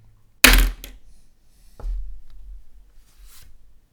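A pen drops onto a table with a sharp, bright clack and a brief rattle, followed by a softer knock and a dull thud, then a faint scrape. No one speaks.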